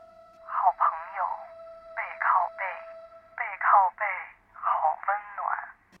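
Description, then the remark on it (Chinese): A voice imitates a telephone ringing: four quick pairs of bright, buzzy rings in an even rhythm, fairly loud, over a faint steady hum. “铃铃铃铃铃，电话铃突然尖锐的响起来了。”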